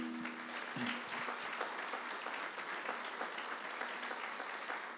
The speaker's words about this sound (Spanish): Un aplauso para ellos, por favor.